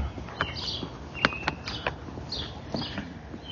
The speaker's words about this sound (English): Another beautiful bird song filled morning.